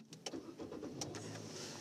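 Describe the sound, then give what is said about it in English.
A car engine cranks and turns over, with rhythmic starter bursts giving way to a steady running engine rumble. “Let's start this car up.”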